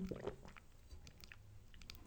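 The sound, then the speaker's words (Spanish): A quiet sip of coffee from a cup, with soft wet mouth sounds and a small swallow over about two seconds and no talking. “pero déjenme le otro traguito al café.”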